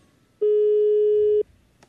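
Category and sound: signal or alarm, mobile phone ringing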